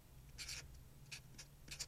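A pen scratches across paper in short, brisk strokes as if writing a letter, a few separate bursts of dry scribbling over a low steady hum.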